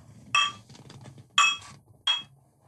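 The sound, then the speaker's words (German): Beer bottles clink together in a toast three times in quick succession, sharp bright glassy knocks, with a short pause before the last, over faint low background murmur. “Aber gut, dann, äh, Jungs, ne? Prost.”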